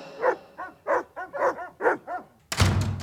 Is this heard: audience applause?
no